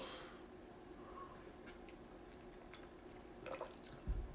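Coffee being poured into a cup, heard faintly as a soft trickle with a few drips, ending with a light knock or clink. No one speaks.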